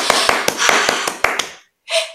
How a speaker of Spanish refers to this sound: Y entonces todos aplaudieron y la bruja Berta también aplaudan desde sus casas, por favor.